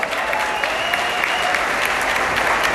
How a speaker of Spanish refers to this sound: ¡Ay, hay hartos directores! Un fuerte aplauso para nuestros directores.